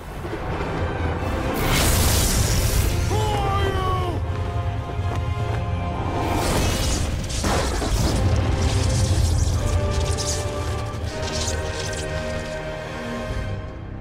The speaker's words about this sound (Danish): Det slutter af med torden og lynild.